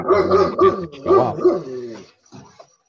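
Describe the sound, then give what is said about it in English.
A puppy barks and growls in a run of loud, pitch-sliding yelps over about two seconds, trailing off into a quieter short growl at the end. “got puppy in the background there”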